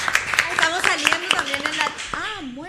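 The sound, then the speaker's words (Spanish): A burst of audience clapping for Lali González at a broadcast from the CAPI, sharp uneven claps running throughout, mixed with loud voices calling and cheering over them. “Y voy a pedir un aplauso muy fuerte eh, para la señorita Lali González, que está acá con nosotros.”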